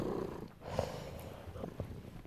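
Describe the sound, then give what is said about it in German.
A black cat with white paws purrs while lounging on a bed, in a steady, low rumbling rhythm, fairly quiet, with a few soft snorts and breathy sounds mixed in. “schnurrt hier gerade nur rum.”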